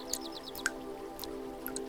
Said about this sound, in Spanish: Y a medida que cae, a su alrededor también lo hacen muchas otras cientos y miles de pequeñas gotas de lluvia. Así que imagina ahora que ves y escuchas las gotas de lluvia